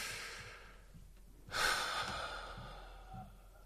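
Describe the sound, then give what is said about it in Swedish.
A single slow, deep breath: a soft airy inhale swells up and then eases into a long, gentle exhale, with no talking around it. “Och bara så här, okej okay, stilla, nu ska jag inte göra någonting, jag ska bara andas.”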